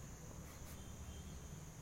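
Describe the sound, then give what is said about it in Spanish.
A steady, high-pitched cricket trill hums continuously and faintly over a low outdoor rumble at 6 in the evening as it begins to get dark, with no one speaking. “aceptación infinita de los pajaritos, de los grillos, que aquí ya son las 6 de la tarde, ya empieza a oscurecer.”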